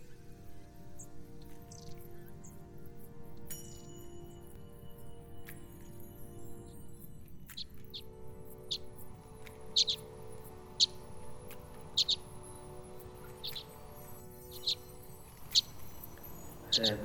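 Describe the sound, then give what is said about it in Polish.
Long-tailed tit calls: thin, very high-pitched notes repeating about once a second over a steady low rumble, fairly faint at first, then growing a little clearer. “Kiedy chcemy zobaczyć Raniuszka, to ja proponowałbym się wybrać do Łęgu Wiślańskiego.”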